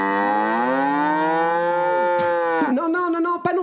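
A bull lets out one long, loud bellow, a deep sustained moo that holds steady for a couple of seconds before cracking into rougher, broken grunts at the end.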